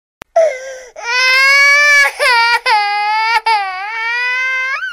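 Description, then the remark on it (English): A newborn baby cries loudly, high-pitched wails in four or five long, strained bursts broken by quick gasping breaths, with no other voices. “I made my funniest face ever, and she cried even louder.”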